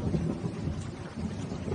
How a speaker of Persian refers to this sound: بارون میاد خیلی وقته جان از اون بارون ریز ریزاست که خیلی دوست دارم